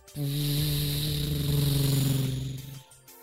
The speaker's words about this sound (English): all of a sudden a truck drove right past her.